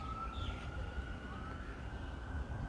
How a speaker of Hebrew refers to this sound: הנה יש פה סירנה חיצונית, בואו נמשוך.